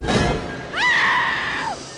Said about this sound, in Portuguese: E vocês já sabem, né? Quando ouvirem esse grito aqui, ó,